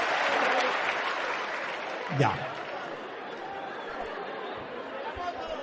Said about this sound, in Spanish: Le advierto a la persona que todos cometemos errores y nosotros somos gente empática. No nos vamos a burlar, no le vamos a gritar ningún epíteto. E incluso es más, lo vamos a aplaudir y felicitar. Un aplauso para él.